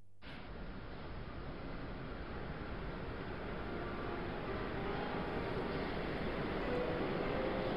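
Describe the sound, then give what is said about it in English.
A train departs from a station platform with a continuous, heavy rumble that builds slightly and stays steady, with no voices over it. “There's your train.”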